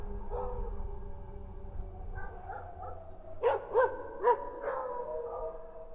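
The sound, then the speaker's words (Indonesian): A black dog howls at night with drawn-out, wavering cries, broken midway by a few sharp barks or yelps in quick succession; no one talking. “Malam itu, aku tidur di pendopo bareng bapak bersarung dan anjing hitam yang melolong-lolong ke arah kamarku.”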